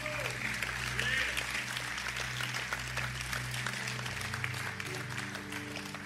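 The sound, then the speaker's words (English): A crowd claps steadily and loudly for several seconds in a round of applause praising God, a dense wash of applause that holds throughout, with sustained low organ-like tones humming underneath. “Come on and give a round of applause of God praise.”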